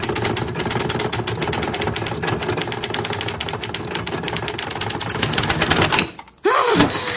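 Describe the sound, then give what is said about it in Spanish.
Rapid, steady typing on a typewriter with a small keyboard, a dense stream of sharp key clacks for about six seconds, then a brief pause before a low, wavering tone takes over at the end. “Las teclas son imposibles y el teclado pequeño.”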